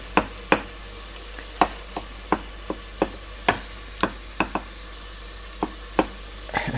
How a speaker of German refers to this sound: Jetzt haben wir die Tomaten am Sieb, die nehmen wir dann auf ein Brettchen und hacken die schneiden die in Würfel.